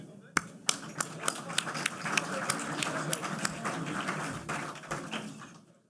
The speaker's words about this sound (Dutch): Een applaus voor